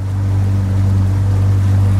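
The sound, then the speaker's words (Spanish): A boat's engine drones in a loud, steady low hum as the boat casts off and departs across the sea from North Korea toward Japan, with a wash of water and wind noise spread over it. The sound is continuous, and no one speaks. “Soltó amarras y partimos.”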